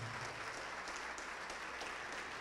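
A church audience claps steadily in a sustained burst of applause for Jesus as people come forward, a dense crackle of many hands filling the space evenly from start to finish, with no voices standing out above it.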